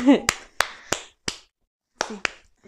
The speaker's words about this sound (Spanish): Aplausos, estoy. Mira, me pongo de pie contigo.